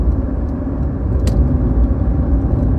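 A car engine pushed hard, giving a loud, close, steady low roar with constant road rumble throughout and a single brief click partway through. No one speaks.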